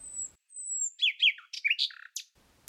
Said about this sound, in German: Die Nachtigall ist besonders bei schönem Wetter melodienreich zu hören. Je ausgelassener sie ihre Lieder pfeift und je mehr Wechsel ihr Gesang enthält, desto sicherer ist die Prognose für schönes Wetter